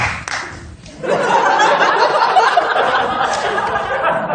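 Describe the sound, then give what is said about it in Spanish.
A studio audience bursts into laughter and applause about a second in, a dense, steady wash of clapping and chuckling that holds at full strength to the end. “Mira que, mira que a veces no entiendo aplausos, pero este.”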